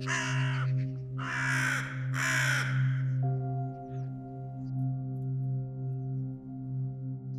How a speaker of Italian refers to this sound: Il gracchiare dei tre corvi accompagna la tua uscita dal giardino e poi dal centro Emerson. Un gracchiare che ti rimane nelle orecchie, come un presagio.